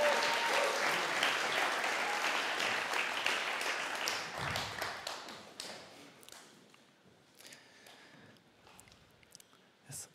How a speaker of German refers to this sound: Vielen Dank euch. Mega stark. Jetzt nochmal einen fetten Applaus für die fünf.